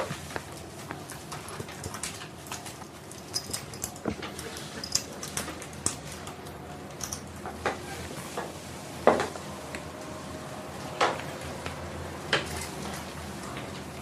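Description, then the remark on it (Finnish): Soft shackles, gentler than ordinary handcuffs, being fastened to a wall to hold a person: scattered clicks and small knocks, irregularly spaced with a few sharper snaps, over a quiet background with no talking. “Laitetaan sinut ensin kiinni seinälle.”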